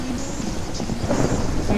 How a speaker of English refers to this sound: That's beautiful, by the way, that rain in Ohio. Yeah, it looks like real heavy rain.